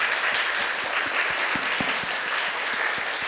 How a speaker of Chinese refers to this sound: 好吧，我们用热烈的掌声欢迎陈牧师。